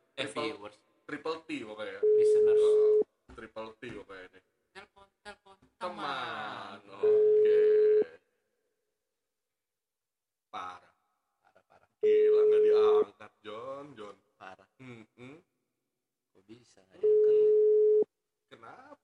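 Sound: phone call ringing tone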